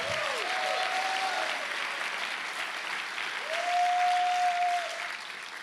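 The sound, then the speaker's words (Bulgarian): A crowd at a sermon applauds loudly and steadily at the preacher's urging, a dense wash of clapping that fills the whole stretch, with a faint high tone sounding briefly at the start and again near the end. “би трябвало да ръкопляскаш силно тук.”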